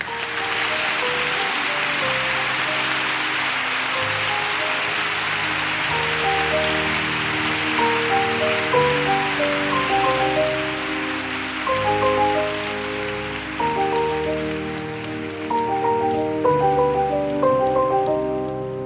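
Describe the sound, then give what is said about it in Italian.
Steady, dense audience applause that carries on for almost twenty seconds, with a melodic line of music playing along underneath the clapping and no talking. “Applausi.”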